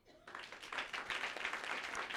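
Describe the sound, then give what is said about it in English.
An audience breaks into applause for the instrumentalists after a brief quiet moment, many hands clapping in a dense, steady wash that holds at an even level. “Clap for them.”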